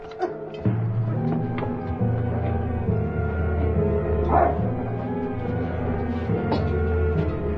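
A dog barks and yelps over and over, nearly continuously, fairly loud, with drawn-out whining tones between the barks and no one talking.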